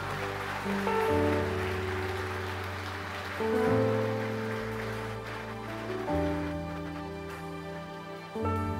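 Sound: audience applauding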